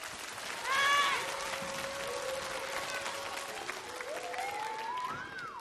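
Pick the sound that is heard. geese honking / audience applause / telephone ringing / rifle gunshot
audience applause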